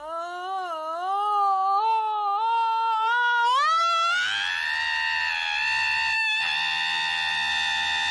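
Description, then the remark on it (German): A novelty alarm clock plays a scream: a wavering, rising wail that climbs in pitch and then holds as a loud, steady, shrill cry for several seconds, with no talking. “Mensch, ein Wecker, der schreit.”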